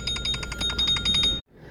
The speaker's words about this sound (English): I apologize for that. Uh, that was a phone call pertaining to work.